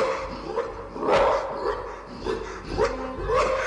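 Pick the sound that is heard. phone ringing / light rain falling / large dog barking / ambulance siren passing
large dog barking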